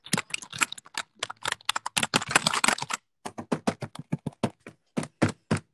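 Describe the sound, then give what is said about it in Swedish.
Rapid typing on a computer keyboard, a dense flurry of clicking keystrokes that briefly pauses, then continues as a steadier series of separate taps, fairly loud with no voices. “Och vänta, tangentbord.”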